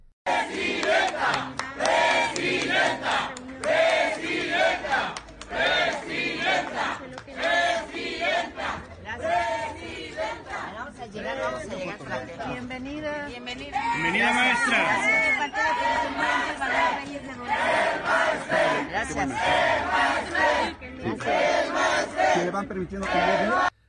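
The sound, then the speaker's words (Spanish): A large crowd in Mexico shouts and chants "presidenta" in unison at a woman, loud and continuous, the rhythmic chant rising and repeating over a dense roar of many voices. “Le gritan presidenta a una mujer que se robó 2.600 millones de pesos de los profesores”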